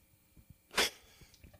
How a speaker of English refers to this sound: we have a puppy. And yeah. You can hear him in the house barking. An absolute sweetheart of a puppy who also did try to steal the rug.